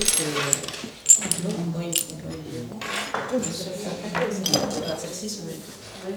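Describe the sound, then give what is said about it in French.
Pieces of ancient ceramic tableware, finely worked with fine surface treatments and made in Italy, clink and clatter as they are handled in a laboratory, with one sharp knock early on and softer taps and scrapes throughout, while voices murmur in the background. “Alors ça c'est le c'est le must de la, vaisselle de table antique, la Donc toi qui est assez bien travaillé, avec des traitements de surface assez fins.”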